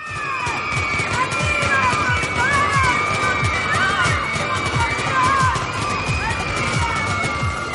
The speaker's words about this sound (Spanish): Varias armas disparando a la vez. Sube la escucha. Hay gente gritando.